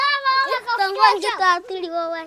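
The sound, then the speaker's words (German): Children's high-pitched voices chatter and call out in lively bursts as kids play on a village square with a large tree in the middle at midday, steady and fairly loud throughout the short stretch. “Kinder spielen auf einem Dorfplatz mit einem großen Baum in der Mitte.”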